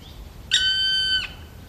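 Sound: black woodpecker call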